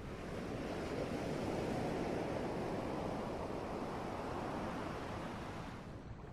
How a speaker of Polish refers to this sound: Oddychając dalej, wsłuchuj się w dźwięki fal, które słyszysz.